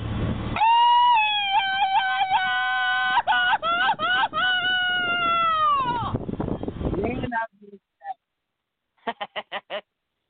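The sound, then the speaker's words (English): A long, high-pitched Mexican grito yell rises and wavers with trilling ululations for several seconds, then breaks off, followed by a few short, clipped vocal bursts. “can you do me a favor and hit me with that Mexican yell that I'm so famous for?”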